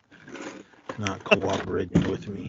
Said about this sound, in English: Sorry about the noise, everyone. I'm trying to close my desk drawer and it's